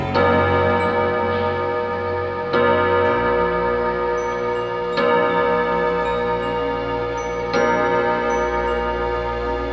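A pendulum clock ticks steadily, with a sharper accent roughly every two and a half seconds, over a sustained, ringing tonal background. No one speaks.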